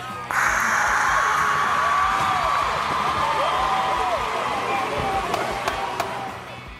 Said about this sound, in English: No, let's just turn it over to the studio audience, and the crowd goes wild.